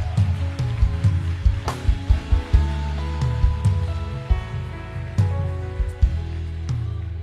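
An audience applauds the presence of the Lord for several seconds, a dense, steady wash of clapping with a few sharper bursts, while sustained keyboard chords play underneath. No one speaks.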